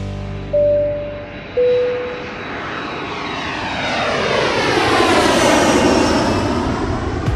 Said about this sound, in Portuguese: Bom, hora da gente pegar o nosso avião de novo e voar até o Oriente, porque o papo agora é Super GT.